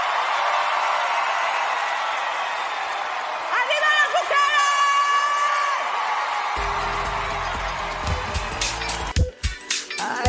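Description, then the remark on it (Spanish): A crowd cheers steadily, with high, drawn-out whoops rising over the noise midway, then dense applause for all the women breaks out and grows louder, sharp claps crackling through to the end. “Primero, un aplauso a todas las mujeres de pie.”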